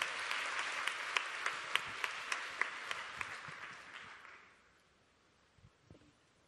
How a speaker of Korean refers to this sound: 우리 축복의 박수로 귀한 말씀을 청해 듣도록 하겠습니다.